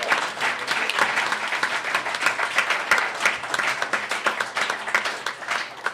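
Sustained applause from a group, a dense, steady patter of many hands clapping at once for the full six seconds, fairly loud and even, with no voices standing out.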